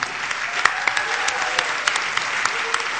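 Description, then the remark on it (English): A church audience applauds in thanks to a soldier deacon, many hands clapping steadily for a few seconds in a dense, even patter with a few sharper claps standing out. “먼저 우리 군인 집사님 충성 우리 감사의 박수 군인 집사님께 충성.”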